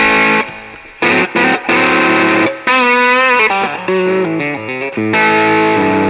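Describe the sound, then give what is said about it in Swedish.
Overdriven electric guitar with both channels on at once and germanium, a midrange-heavy, Tube Screamer-like crunch, a little honkier with the bass cut, playing a short phrase of chords and bent notes with brief gaps, loud and alone with no voices. “Här har jag gjort ett annat ljud som har eh, båda kanalerna samtidigt och Germanium då.”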